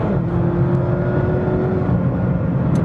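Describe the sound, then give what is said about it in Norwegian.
A loud station wagon engine roars steadily as the car accelerates, its pitch climbing before a brief change partway through that is a hard gear shift. No one speaks. “Litt harde girskift, da.”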